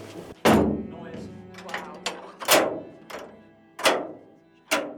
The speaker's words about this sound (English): So these are the uh, blast doors, which we're just going to go through. And as you can see, they're quite big, and they, uh, they do, when they're shut, make quite a, um, a definitive